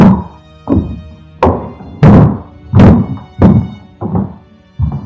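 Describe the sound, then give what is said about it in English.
Heavy, repeated thuds pound on the attic floor, about eight booming hits in steady succession, each one loud and resonant with a low, dull impact like something banging on a wooden floor. “A constant banging on the attic floor.”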